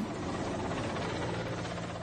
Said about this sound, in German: Man sieht darauf einen großen Öltanker und darüber einen Helikopter.